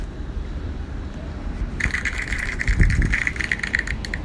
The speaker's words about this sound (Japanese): えー、初めてこの交換音を使ってみましたありがとうございますうまく拍手の音は入ってるんだろうか